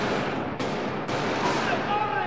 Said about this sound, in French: Il s'approche et ça y est, des coups de feu Des coups de feu partout Des coups de feu